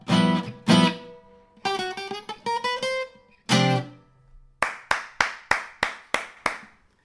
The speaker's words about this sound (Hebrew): עושים סיום כזה שמקבלים אחריו מחיאות כפיים. זאת אומרת, כזה שהוא ברור, למשל, אני יכול לעשות דבר כזה למשל.